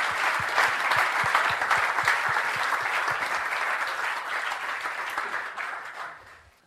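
An audience breaks into sustained applause, dense overlapping clapping that stays loud and steady before tapering off near the end. No one speaks over it.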